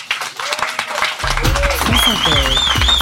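Audience applause: a dense, steady patter of many hands clapping that grows fuller after the first second, joined by loud low tones and high, wavering whistle-like sounds.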